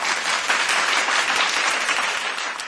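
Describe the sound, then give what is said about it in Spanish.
A burst of sustained applause welcoming a new student, dense overlapping claps filling the whole stretch at a steady, fairly loud level, with no voices standing out. “Oh, muy bien, fuerte aplauso, claro que sí, por favor, por favor.”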